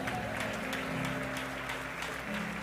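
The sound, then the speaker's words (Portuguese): An audience applauds Jesus steadily, many hands clapping in a dense, continuous wash, with a low sustained tone humming underneath. “Aplaude Jesus.”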